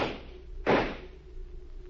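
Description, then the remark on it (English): A single loud gunshot cracks out sharply, fired at something on the porch of a deserted farmhouse, then quickly decays over a low, steady background hum with no voices. “I heard shots. They were mine.”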